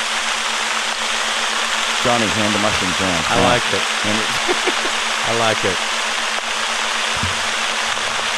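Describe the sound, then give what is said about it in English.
A steady, dense hiss of a white noise track meant to sound like rain fills the whole recording, with voices briefly talking and laughing over it in the middle. “That was white noise. It's like it's a it's supposed to sound like rain.”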